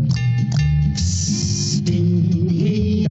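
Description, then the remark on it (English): A heater hisses steadily and loudly, with sharp metallic clanks and clinks popping out every half second or so over a droning, ringing background hum. No one speaks. “It's all about clinking and clanking and hissing.”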